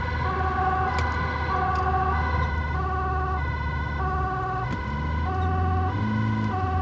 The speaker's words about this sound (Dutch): Ehm, betekent ook dat wij eh, met, met zware en sirene rijden, dat wij een voorrangsvoertuig zijn. het overige verkeer zal dus ruimte moeten maken voor ons om, om te kunnen passeren.